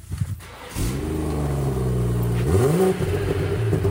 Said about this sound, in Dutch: Ja, ja. Twee mooie uitlaatpijpen eronder en een topgeluid. Waar vinden we deze auto? Ja, een heerlijke zescilinder BMW'tje.